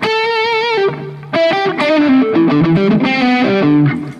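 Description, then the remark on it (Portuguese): A crunchy, mildly distorted electric guitar, set to a crunch tone through a minimalist Cuvave mini amp, plays a short melodic phrase with sustained bends and quick note changes, bright harmonic-rich tone, loud and alone with no talking. “Aí esse aqui, vamos dizer, o crunch.”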